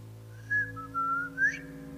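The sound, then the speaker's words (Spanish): A person whistles a short three-part tune imitating an eerie whistle, clear, rising and falling in pitch, over a low steady background hum. “Pero mi papá y mi mamá escuchaban el silbido que, o sea, cuando ya estaban próximos, que alguien, un tercero, un tercero estaba chiflando.”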